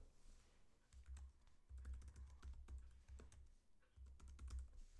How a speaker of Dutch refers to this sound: Dus hier staat mijn e-mailadres. e-mailadres, invoerveld. Nog niet in. Ik ga dat even typen.